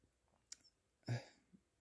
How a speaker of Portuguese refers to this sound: Eu tô arrotando.